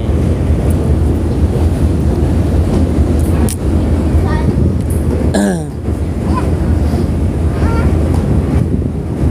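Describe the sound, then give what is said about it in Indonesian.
Steady roar of wind and open sea rushing past during a sea crossing toward Bakauheni, in the middle of the sea, in overcast but not bad weather; loud and constant throughout, with a low rumbling drone underneath and a brief faint voice-like chirp midway. “gue nih udah lagi arah ke Bakahuni gue lagi di tengah laut cuaca juga eh, nggak uh, nggak buruk banget nggak buruk lah cedem cedem mendung enggak cerah enggak gitu”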